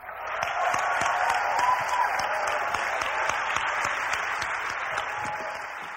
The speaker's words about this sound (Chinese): 德施特·耶格和伯蒂·耶格是安利生意里的偶像明星。你们想象一下吧，他们做这个生意已经五十年了。我们为耶格家族热烈鼓掌吧！